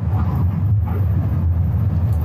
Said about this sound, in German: Leichte Linkskurve. Jawohl. Da kommt ein Auto entgegen.